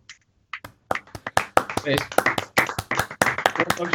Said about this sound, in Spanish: Propongo un aplausete, eh, para el juego. Un aplausete así de un, un, aplauso para ¿eh? Nintendo.